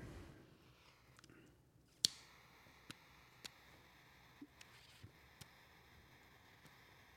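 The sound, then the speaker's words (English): A cigar being lit and toasted with a lighter: one sharp click of a lighter, then a scattered series of soft ticks and crackles over a quiet, low background hiss, with no talking. “Excuse us, we're enjoying what you're hearing is some ASMR uh, cigar lighting.”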